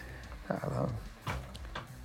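A door opening as a man comes in, with a few soft knocks and clunks spread across a couple of seconds, at low volume over a faint background murmur.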